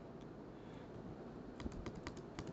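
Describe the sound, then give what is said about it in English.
Rapid clicks of typing on a computer keyboard as a person types out what they are saying while talking, a quiet stretch and then a quick burst of several keystrokes, with a low steady background hum. “you'll have a screen recorded one where you can actually see what I'm typing as I'm talking”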